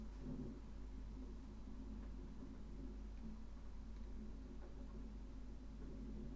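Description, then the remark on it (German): A low, steady rumble of thunder rolls on throughout, deep and muffled, with no voices over it. “Der Donner.”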